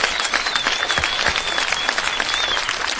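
round of applause

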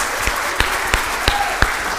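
audience applauding

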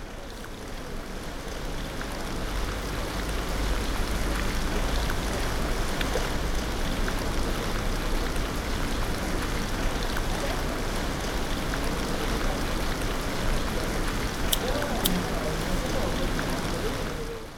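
rain falling

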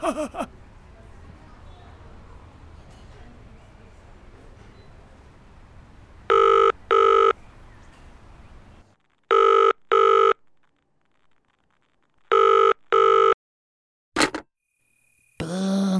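telephone ringing unanswered

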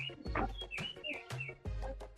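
birds chirping

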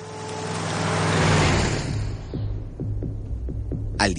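car driving

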